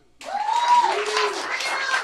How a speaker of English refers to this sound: Uh, clap for news.